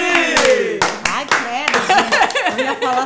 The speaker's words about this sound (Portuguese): Vamos aplaudir!